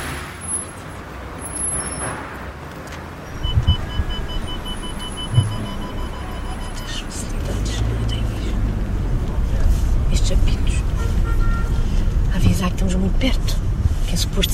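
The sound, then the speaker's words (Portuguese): A car maneuvers slowly to park with engine and road rumble building, while its parking-assist system gives short electronic beeps in a steady pulsing pattern, with faint indistinct voices in the background. “era para ajudar a, a estacionar. E se pudesse tirava. Isto foi o primeiro carro assim com estas uh, tecnologias todas que eu tenho.”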